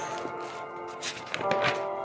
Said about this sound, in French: Vous entendez les feuilles que je voilà, c'est pour dire que je suis en train d'ouvrir mon cahier.